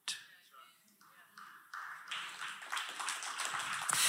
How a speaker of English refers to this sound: You know, there's revival when the clapping starts from the back.